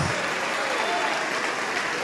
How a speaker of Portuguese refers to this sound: Igreja, vamos aplaudir, vamos nos alegrar, porque pode ser que Deus esteja esperando uma pessoa aqui para mandar tocar a trombeta em todo o planeta. Ô oh, glória, vamos aplaudir mais. Vamos aplaudir mais.